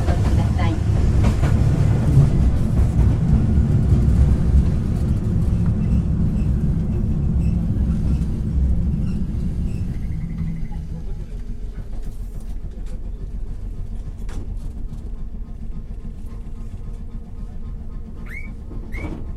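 A Keifuku Electric Railroad Mobo 101 type tram bound for Shijo-Omiya rolls steadily along the rails between stations on the Arashiyama to Katabiranotsuji run, heard from inside the car: a heavy low rumble of wheels and motor easing slightly, with occasional faint clicks and a brief high squeal near the end.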